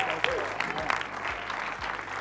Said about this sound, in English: Let's stand. I want us to just roar and cheer and clap